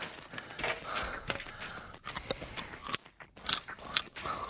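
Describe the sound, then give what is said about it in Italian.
Noisy chewing of chicken with wet, crunchy bites and smacking, continuing in an irregular rhythm for several seconds with no talking. “Non devo ingozzarmi, devo razionare le scorte.”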